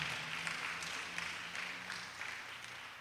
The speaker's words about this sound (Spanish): Dele un aplauso al Señor, por favor, en esta noche. Dele fuerte ese aplauso al Señor en esta noche.